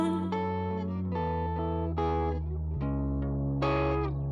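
A rock band's song is playing loudly and steadily, with heavily effected, distorted electric guitar chords shifting every second or so over a sustained low bass. No one is singing or talking yet.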